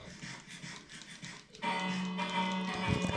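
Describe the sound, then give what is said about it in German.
A village bell rings out in a video game, rung by a player to say goodbye to the villagers, its sustained ringing tone entering halfway through and hanging steadily over a busy background of clattering game sounds. “Ich, glaub, ich glaube, vielleicht hört sie auch äh, das schöne Glockenläuten, was mein Vater gerade veranlasst hat.”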